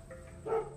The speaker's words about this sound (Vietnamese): Tiếng chó cắn ma